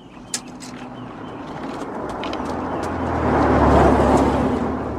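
A car engine hums steadily, swelling louder as the vehicle draws near and rumbles past, with a brief sharp click near the start and broad road noise filling the background.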